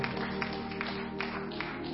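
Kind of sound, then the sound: crowd, audience clapping hands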